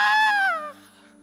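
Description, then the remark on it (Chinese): A voice lets out a short, strained cry that slides downward in pitch, rich in harmonics, lasting under a second before trailing off: an imitation of a held-back urgent scream, illustrating the Greek word krazo, an urgent cry full of deep emotion. “我不能尖叫了，可是我是低尖叫了。”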